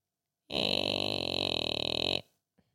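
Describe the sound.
A voice imitates an advent calendar door opening for 4 December with one sustained, buzzing, strained sound lasting under two seconds, loud, then a tiny click after a brief pause.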